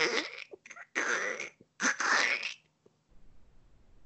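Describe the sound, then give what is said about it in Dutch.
A voice imitates a chain rattling continuously, making a string of harsh, hissing, clattering bursts for about two and a half seconds, then stops, leaving faint background noise. “Jullie oh, horen een, een ketting continu zo.”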